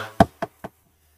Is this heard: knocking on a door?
yes